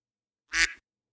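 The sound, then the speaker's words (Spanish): A single short, nasal duck quack from a soundboard plays alone, loud, lasting about a quarter of a second before cutting off into silence. “Me encanta, me encanta el, patito.”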